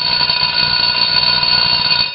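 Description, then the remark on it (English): A school bell rings loudly and continuously, a harsh, steady electric clatter that fills the whole moment without pause. No voices are heard over it. “The bell doesn't dismiss you. I dismiss you.”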